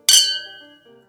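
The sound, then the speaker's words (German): A single bright clink of red wine glasses touching in a toast, with a sharp attack and a clear ringing tone that fades slowly over about a second. “Ja, da müssen wir jetzt wieder Wein nachfüllen, damit er wieder so klingt wie vorher.”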